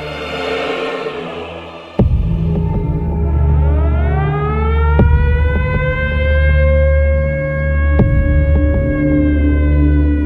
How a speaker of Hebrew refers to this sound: בבוקר החלו להחריד את המשק קולות אזעקה עולים ויורדים שהגיעו מבסיס חיל האוויר הסמוך בתל נוף.